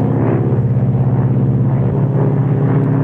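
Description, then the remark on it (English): Loud, steady, low droning hum of propeller aircraft engines with layered harmonic tones as the number one engine's propeller is being feathered; the lowest rumble drops away partway through while the drone carries on. No voices. “Okay, the number one engine's being feathered. Or the prop.”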